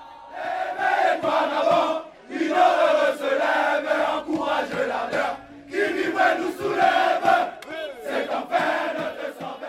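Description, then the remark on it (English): A loud crowd celebrating on the streets in Africa chants and cheers in surging bursts of many voices together, the phrases rising and falling with brief gaps between them. “You've also had footage of celebrating crowds.”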